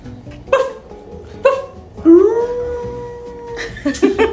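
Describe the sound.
A person imitates a dog, giving two short sharp barks followed by a long rising, sustained howl, then a few more yelping barks, loud with no other talk.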